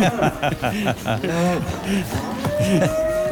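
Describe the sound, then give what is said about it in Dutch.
Several cows moo in overlapping, drawn-out calls, rising and falling in pitch. The lowing is loud, filling the whole stretch with barely a pause between calls. “Eh, en de koeien zijn weer hartstikke blij.”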